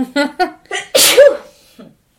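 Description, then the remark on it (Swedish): A loud sneeze bursts out after a few quick sharp inhaled breaths building up to it, followed by a brief trailing exhale, with no talking. “Eh, måste jag nysa?”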